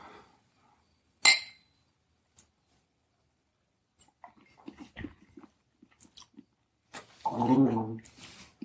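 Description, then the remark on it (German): A single bright clink as two energy drinks knock together in a toast, fairly loud, followed by quiet sipping and swallowing noises and a short hummed voice. “Ja, komm. Prost.”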